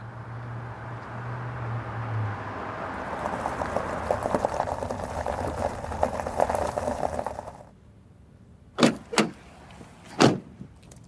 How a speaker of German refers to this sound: Draußen näherte sich ein Fahrzeug.